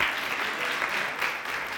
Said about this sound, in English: So give me another hand clap.